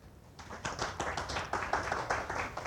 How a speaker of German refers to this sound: Bitte Applaus.